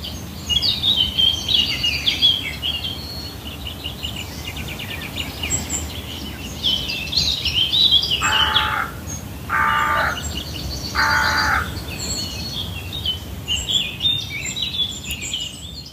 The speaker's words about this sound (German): Aber da lag ich schon nicht mehr in der Hängematte, da bin ich schon über eine Wiese gelaufen und äh, habe mir die Vögel angehört. Und auch die will ich euch nochmal mitgeben, damit es auch in euren Ohren ein bisschen zwitschert aber nicht nur das.